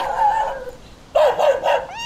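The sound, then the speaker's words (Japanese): A family's pet dog at a seaside settlement in the Levant whines and yelps in a drawn-out, high tone, then gives a quick series of three or four sharp barks, with no voices present. “おおこの犬は君の犬かいパパが飼ってるの”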